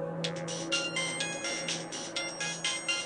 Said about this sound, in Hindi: यही सब सोचे जा रही थी वो कि तभी मोबाइल रिंगटोन सुनकर उसका ध्यान टूटा